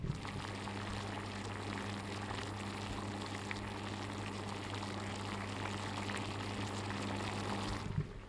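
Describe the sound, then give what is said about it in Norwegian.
Water boils steadily on an induction stove, a continuous rolling bubble and hiss with a faint low electrical hum beneath, holding even for about eight seconds without any voices. “Og da skal du som hører på denne podkasten nå få fem sekunder med kokende vann, bare for litt sånn meditasjon på en litt tung eh, tirsdag.”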